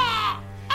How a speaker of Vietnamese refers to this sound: Chợt nghe tiếng quạ kêu trên cành cây xoan, ông giật mình ngẩng lên vẫn con quả đen đậu chỗ cũ nhìn ông như thách thức Ông lượm cục đất ném lên Nó kêu mấy tiếng ai oán và bay vụt đi